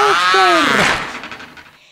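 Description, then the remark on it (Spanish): A door swings shut with a long, wavering creak of its hinges, ending in a soft thud that fades away. No one speaks. “Y cuando estuvieron adentro, la puerta se”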